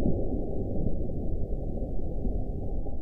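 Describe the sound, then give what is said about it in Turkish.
An evening thunderstorm in Erzurum, with rain turned into a thundery downpour and lightning: a deep, muffled rumble rolls on steadily for a few seconds, loud and bassy with a dense rain wash underneath and no voices. “Erzurum'da akşam saatlerinde başlayan yağmur gök gürültülü sağanak yağmura dönüştü.”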